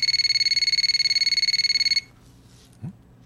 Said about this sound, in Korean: 그러던 어느 날 일을 하고 있는데 전화벨이 울렸습니다. 전화기를 보니 그녀였어요.